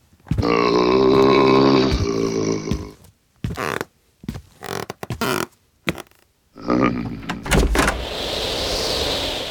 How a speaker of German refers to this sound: würdest du bitte mal die Tür aufmachen?